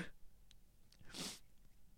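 A single stifled sneeze bursts out about halfway through, a short muffled, hissy puff held back by the person, fairly quiet, with faint breathy sounds around it and no talking.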